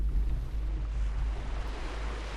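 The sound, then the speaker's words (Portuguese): Ocean waves wash onto the beach at Praia das Sete Ondas in a steady, continuous roar, fairly loud, with a deep rumble of wind underneath and no voices. “Mais uma paragem, Praia das Sete Ondas, areal de peregrinação.”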